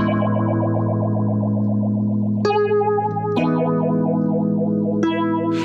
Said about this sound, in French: Tu sais ce que c'est comme instrument eh c'est de la harpe. Une harpe sur laquelle on a branché une pédale d'expression, du genre euh, qu'on utilise normalement sur les guitares électriques.